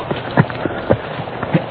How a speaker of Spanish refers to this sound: Es el caballo solo. Viene ensillado, pero solo.